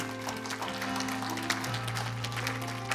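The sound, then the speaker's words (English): A church audience gives the Lord a hand clap of praise after a prayer, a dense, steady wash of clapping that holds at an even level for the full three seconds, with sustained low organ-like notes humming underneath. “Would you give the Lord a hand clap of praise this morning?”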